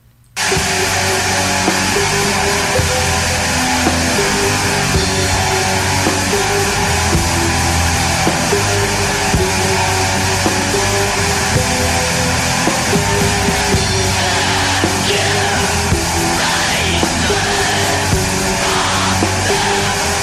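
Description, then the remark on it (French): A black metal song released in 1996 kicks in abruptly: a dense, loud, unrelenting wall of distorted guitars and drums with shrill, heavily distorted shrieking vocals running throughout. “un bel exemple euh, de la distorsion sur le vocal.”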